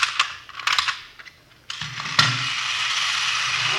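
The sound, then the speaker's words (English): A small wind-up miniature Sherman toy tank, with cannons on the side and sparks coming out, clicks and whirs, a few sharp clicks and ratchet bursts giving way to a steady, buzzing mechanical grind that runs on without any talking. “Miniature Sherman tank. What's it do? Watch.”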